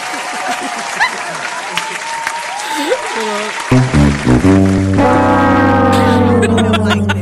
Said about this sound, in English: We we about to get we gonna get your hand clap on there.